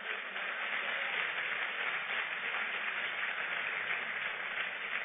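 An audience applauding steadily, a dense wash of many hands clapping at once with no individual claps standing out, holding an even loudness throughout with no talking over it.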